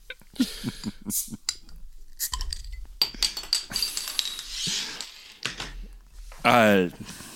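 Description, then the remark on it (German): A glass beer bottle clinks several times in quick taps, then a golden-yellow 6.8% alcohol beer is poured into a glass, a short, loud gurgling pour with rising pitch near the end, with people talking in between. “Und hinein ins Glas.”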